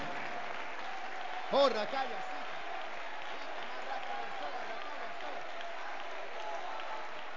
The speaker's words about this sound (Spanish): Dar un aplauso alabanza grande al Dios Todopoderoso.